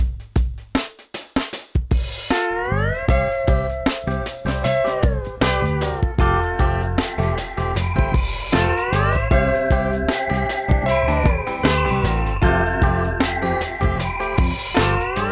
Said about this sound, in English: hit the music i guess